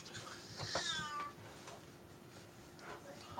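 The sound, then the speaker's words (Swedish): A cat lets out a clear, drawn-out meow with a rising and falling pitch, followed by quieter shorter cries against a faint background hum. “Jag måste bara kolla vad det är för fel på katten faktiskt.”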